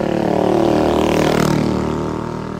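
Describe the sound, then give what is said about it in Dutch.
Scooters with small two-stroke engines drone steadily as they pass by outside, the pitch bending, loud and continuous with no voices over it. “Moet ik mijn excuses maken voor die scooters?”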